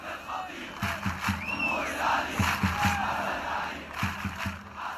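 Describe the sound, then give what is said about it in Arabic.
A massive crowd of football ultras, standing in the stands behind the goal, chants in unison, a dense roar of many voices rising and falling, punctuated by rhythmic low drum beats and occasional whistles cutting through. “ولهيدا التشجيع طقوس ثابتة بيتجمعوا بالمدرجات اللي ورا المرمى بيوقفوا كل المباراه بيرفعوا التيفو أو اللافتات واليافطات الضخمة وبيشعلوا الألعاب النارية والبايرو أو الشماريخ وبيغنوا 90 دقيقة بلا توقف أغانيهم الخاصة”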